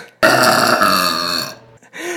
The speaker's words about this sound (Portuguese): Até ela soltar o primeiro arroto.